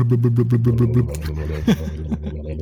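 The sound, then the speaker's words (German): A voice imitates the deep, pulsing burble of a V8 engine, a low rhythmic throb for about a second, followed by breathy, rougher vocal noises and a brief sharp sound. “Stell dir mal vor, du fährst so ne, beim, beim Lidl so mit dem Einkaufswagen so durch die Gänge durch und dann hörst du so dieses schöne V8 blubbern.”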